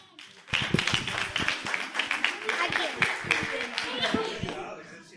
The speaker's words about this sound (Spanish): Ahí, valiente. Aplauso.